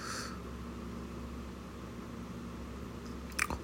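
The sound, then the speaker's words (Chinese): A long quiet stretch over a steady low hum, then a single short, wet swallow of saliva near the end, faint and quick. No one speaks. “我刚刚在吞咽我的口水，”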